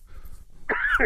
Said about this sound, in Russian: Будьте здоровы.